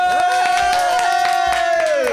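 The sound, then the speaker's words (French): Loud, continuous applause and cheering from a crowd, with sharp claps throughout and a held high tone over them that slides down in pitch at the very end. “On envoie des applaudissements ou quoi On y va.”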